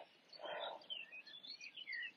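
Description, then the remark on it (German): Several birds chirp and twitter busily in the background, short high tweets overlapping in a continuous, lively chorus with no one speaking. “Ihr hört wahrscheinlich wieder im Hintergrund ähm, die Vögel fleißig zwitschern.”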